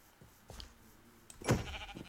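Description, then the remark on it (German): A video game sheep lets out short bleats as it is struck, with a louder, harsher bleat near the end over faint background noise. “Okay, wir gehen mal ganz kurz Heats und den Schafen nur mal ganz kurz.”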